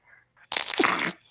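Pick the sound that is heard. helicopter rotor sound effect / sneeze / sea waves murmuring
sneeze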